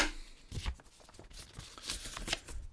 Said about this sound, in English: very thin newspaper like paper with you know black, silver, and red risograph, incredible graphics and printing.